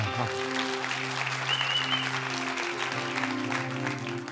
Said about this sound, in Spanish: Entonces yo le digo a los chicos que están de novios, sí, pueden aplaudir los padres también.